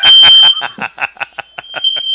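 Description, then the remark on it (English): A plugged-in smoke detector alarm in a room shrieks in rapid, evenly spaced high-pitched beeps, about a dozen pulses in quick succession, loud, with a steady tone running underneath. “Well, the door is closed, but I've got I've got a smoke detector in the room I'm in.”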